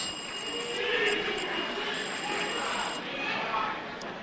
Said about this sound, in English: For an opportunity to solve a riddle, you must ring for it. May I hear your bell? Opoku Ware. Thank you. Yours, Pope John. Thank you. And yours, Prempeh College.